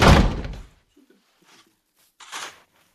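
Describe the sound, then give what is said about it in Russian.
A man slams a study door shut with one loud, heavy thud that rings out briefly, followed by quiet, faint knocks and a short, softer rustling scrape a moment later. “кричишь ты, и он хлопает дверью кабинет.”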